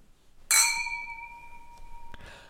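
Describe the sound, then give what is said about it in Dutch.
A single bright clink of glasses of Hefeweizen wheat beer knocking together in a toast, ringing on with a clear sustained tone that slowly fades, followed by a soft knock near the end. “Proeven. Laten we gaan. Klinken.”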